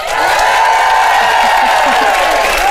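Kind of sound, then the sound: crowd, audience cheering and applauding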